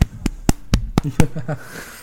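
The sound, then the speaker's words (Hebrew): Six sharp hand claps in a quick, steady rhythm, each crisp and loud, followed by a short stretch of voice as the clapping stops. “בוא, שאני אמחא כפיים כבר עכשיו.”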